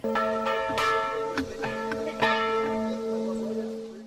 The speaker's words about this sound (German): Die Glocke hört man drüber der Grenze noch einige Kilometer. Die Kirche in Zettwing ist sicher ein sehr wichtiger Kraftort, auch ein Ort der Stille.